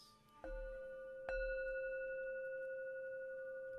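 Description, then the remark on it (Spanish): A meditation bell is struck twice during a guided meditation to begin Samatha practice. The strikes are about a second apart, and each rings out in bright sustained tones that hum on and fade slowly, with no voices present. “Toque la campana dos veces.”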